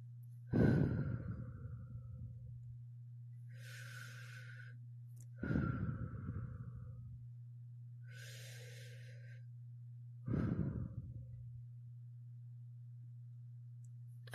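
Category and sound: human body sound, slow deep breathing exercise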